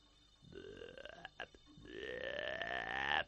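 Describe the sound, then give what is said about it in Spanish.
A voice imitates a giant toad croaking: two drawn-out, throaty, burp-like croaks that rise steadily in pitch, the second longer and louder, with a few clicky sputters between them. “En el fondo, sentado en trono de agua, un sapo gigantesco que le miraba con curiosidad mientras croaba”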